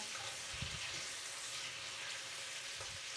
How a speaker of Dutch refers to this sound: Ik ben het, uh, dat horen jullie misschien, het, uh, het spek aanbakken.